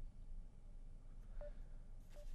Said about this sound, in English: Hello? Now I'm just getting the beeping.